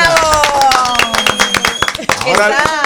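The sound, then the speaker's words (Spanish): A burst of applause: many hands clapping in a rapid, dense patter, steady and fairly loud for a few seconds, with voices calling out over it. “Y compañía, un aplauso”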